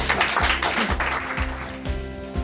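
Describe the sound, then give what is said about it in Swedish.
A crowd at a celebration claps steadily for the guests for a couple of seconds, a dense, even patter of many hands, with a low, rhythmic musical tone running underneath. “tusen tack och jag tycker vi ger dem en applåd.”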